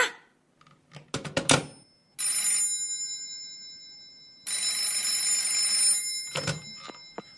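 An old-style telephone bell rings in two long, loud bursts, separated by a pause, with a few clattering handset clicks before and after.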